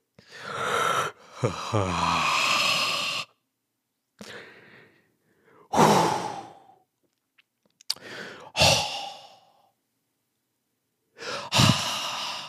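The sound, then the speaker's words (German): A person loudly imitates a man who kept sighing very loudly in a sauna, producing a series of five or six heavy, breathy exhales with short pauses between them, with no other talking. “Der Typ hat immer super laut geseufzt so.”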